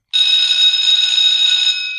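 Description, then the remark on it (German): A school bell rings in one loud, continuous, harsh electric burst, with a bright, buzzing high-pitched tone that holds steady for about two seconds before cutting off. “die Schul Schulklingeln hören sich immer gleich an und immer so unglaublich aggressiv.”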